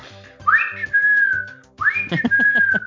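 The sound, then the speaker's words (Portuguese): Someone whistles an imitation of a great kiskadee's song: two clear phrases, each a quick upward swoop settling into a long, slightly falling held note, over a faint low background hum. “e por, que, e por que, que o pessoal chama de Ben TV? Pelo canto, né?”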